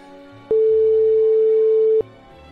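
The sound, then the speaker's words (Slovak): A single loud, steady telephone ringback tone sounds for about a second and a half, a flat electronic beep with a sharp start and stop, over faint background hum. “Ty si zlatý, tak volaj.”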